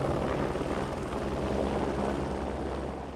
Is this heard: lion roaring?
no